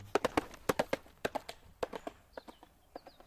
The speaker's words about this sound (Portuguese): dos cavalos ao fundo,